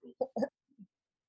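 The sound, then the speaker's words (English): A quick sneeze: a couple of short breathy catches building into a sharp burst, then a faint sniff or murmur trailing off. No one speaks. “Bless you.”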